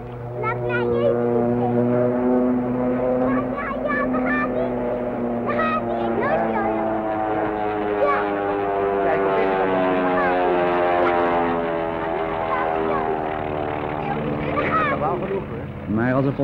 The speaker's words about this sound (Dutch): En terwijl de vluchtelingenstroom trekt, alle aandacht gevestigd op de meest onmogelijke verkeersobstakels, stijgt ook een tweede vliegtuig op groter afstand boven de velden uit.